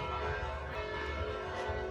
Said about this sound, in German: Aber jetzt ist es halb sieben und hier läuten jetzt mittlerweile fast alle Kirchen, die es hier wohl in der Altstadt gibt